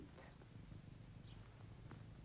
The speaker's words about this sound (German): Hä, Katze? Ja. Brave Katze.